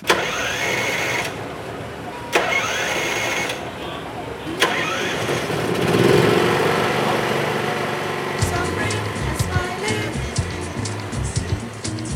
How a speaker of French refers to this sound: Maintenant, on peut lancer le générateur. Et mec va enfin pouvoir brancher son ordinateur et travailler.